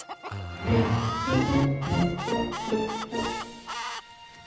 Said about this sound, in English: Ah, I feel like a tax collector carrying all these chickens. Whoa. they don't seem to be enjoying themselves.